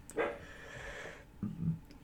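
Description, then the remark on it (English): Diety, a dog, barks twice, a drawn-out bark followed by a shorter one a second later, sounding fairly faint with no one talking. “Diety's barking, so that's a fun new noise to deal with.”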